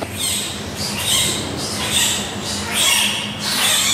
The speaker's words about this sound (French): on entend un cri. Le deuxième panda est né et semble beaucoup plus vif que le premier.